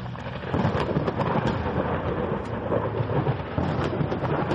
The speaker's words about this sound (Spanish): A los pocos minutos se vio como a la distancia caía un rayo. Unos segundos después, un fuerte trueno los hizo salir del completo estado de calma en el que se encontraban.